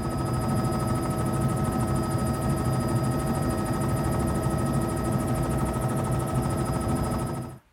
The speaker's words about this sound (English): The helicopter is a very different experience from the airboat. Uh, both have their merits. In the helicopter, you get a more panoramic view, a real landscape perspective.